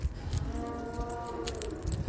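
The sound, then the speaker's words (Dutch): A cow lets out a long, low moo that holds steady for most of the moment, with faint rustling and background noise around it, no one talking. “En um, je hoort de koeien loeien.”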